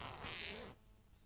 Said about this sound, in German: Das war der Reißverschluss von meinem Pulli.